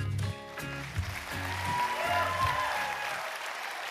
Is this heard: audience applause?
yes